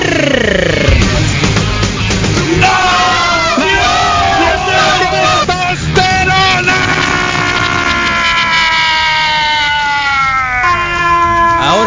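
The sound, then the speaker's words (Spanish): A man, a doctor, bellows a long, loud, sustained yell, his strained voice rising and wavering over a dense background of crowd noise for about twelve seconds. “así gritó”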